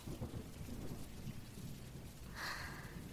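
Steady rain hisses continuously while low thunder rumbles beneath it, with a brighter swell of rainfall near the end; no voices are present.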